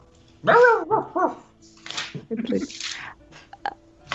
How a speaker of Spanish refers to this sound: Ah, escuché un ruido. Fue tu, fue tu perrito, dice que tiene hambre.